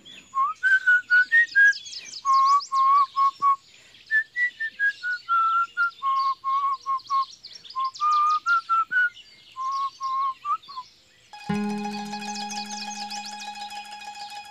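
Someone whistles a simple children's tune, a mix of the traditional songs Arroz con leche and Mambrú, bright stepped notes in a bouncy rhythm for about eleven seconds, then a sustained buzzy tone takes over and slowly fades.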